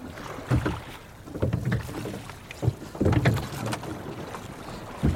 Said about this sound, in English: So, what suddenly happens is that the whole team works together in pulling these long oars that drag us then across the water out into really the heart of the estuary and our destination in this pilot gig we're hoping might be the bar.